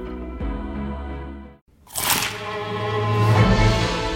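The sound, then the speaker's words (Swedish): A short tonal passage cuts to brief silence, then one loud, crisp crunch of biting into a McDonald's McCrispy burger, followed by a sustained humming, musical tone. “Upptäck det vackra ljudet av McCrispy Company för endast 89 kronor. En riktigt krispig upplevelse.”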